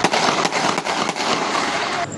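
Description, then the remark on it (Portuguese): Several sharp, cracking gunshots are fired in irregular succession during criminal attacks on vehicles in the streets of Vitória, over a dense, noisy outdoor background, fairly loud, with no clear voices. “Vários tiros foram disparados.”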